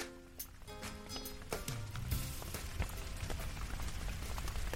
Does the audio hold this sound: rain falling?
yes